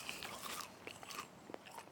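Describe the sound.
Crunchy biting and chewing on a crisp leaf by a man pretending to be a snail, several quick crackling bites in a row, with no talking.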